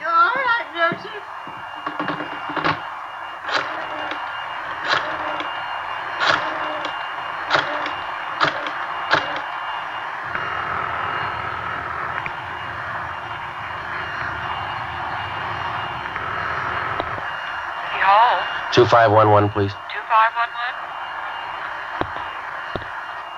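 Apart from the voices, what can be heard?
vacuum cleaner running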